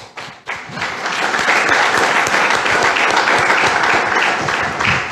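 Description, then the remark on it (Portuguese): A church audience bursts into steady applause for the Lord that starts abruptly and holds at a loud, even level for several seconds, a dense wash of many hands clapping together. “Aplauda ao Senhor.”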